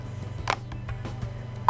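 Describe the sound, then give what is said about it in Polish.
A few soft button clicks over a low electrical hum, then a loud, steady electronic beep from a talking scale's keypad cuts in at the end as the keypad is locked by pressing the plus and minus buttons at once. “No i teraz zablokuję klawiaturę wciskając plus i minus naraz.”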